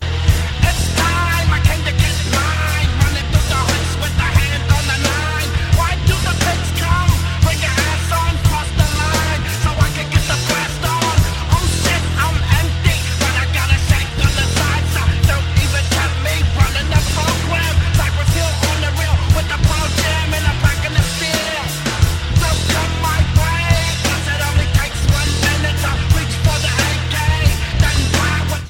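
A loud, dense 1993 song by a hip-hop group and a rock band plays throughout, with heavy distorted guitars and a pounding drum beat layered with a rhythmic vocal delivery that blends rap phrasing with rock instrumentation.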